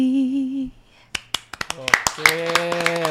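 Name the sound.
hand clapping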